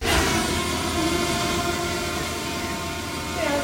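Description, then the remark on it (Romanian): A loud, sustained siren-like tone rides over a dense rumbling roar. It holds steady for several seconds, then dips slightly in pitch near the end. No one speaks. “Uh, da, pare o sirenă mai degrabă.”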